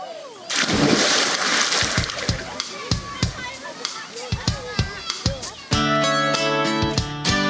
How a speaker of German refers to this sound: Ach ja, ich spring jetzt mal ins Wasser.